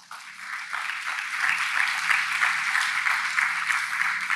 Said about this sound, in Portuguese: Dê um aplauso para Jesus.